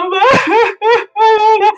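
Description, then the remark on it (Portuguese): A voice sings in a wobbly, exaggerated sobbing way, three drawn-out wailing phrases with short breaks between them, loud. “No filme eles fizeram de uma forma brilhante, que ela cantou chorando e foi lindo, maravilhoso.”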